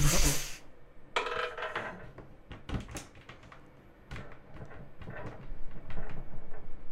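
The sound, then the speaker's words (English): A small die being rolled rattles and clatters around inside a container, a series of quick, irregular clicks and knocks over several seconds, fairly loud, with no voices. “I We're even s- heard it roll around.”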